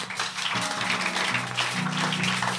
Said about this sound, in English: Clap for Jesus.